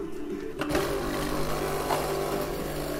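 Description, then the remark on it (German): A new coffee machine runs with a steady, buzzing mechanical hum, like a small pump motor, droning evenly throughout with no voices. “Die Waschmaschine ist neu und unsere Kaffeemaschine.”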